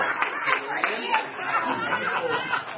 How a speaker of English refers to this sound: we were actually in England, actually celebrating our 30th our uh, wedding anniversary. We've married 30 years. Amen. So clap for her.